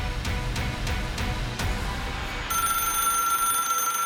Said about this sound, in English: The telephone was ringing. And for some reason, I answered it.